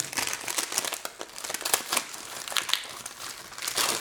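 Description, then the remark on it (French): Continuous crinkling and rustling of a plastic wrapper as a disposable plastic speculum is unwrapped for a smear test, with irregular sharper crackles over a few seconds and no one speaking. “Bon, moi je prends un spéculum en plastique jetable, hein, donc il est, euh, il est pas froid.”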